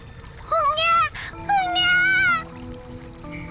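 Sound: baby crying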